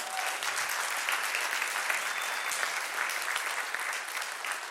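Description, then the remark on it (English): A large church audience claps loudly and steadily for the couple pastoring the church, a dense wash of hands without pause for several seconds, with no one speaking over it. “And if you love them, let me hear your hands double loud.”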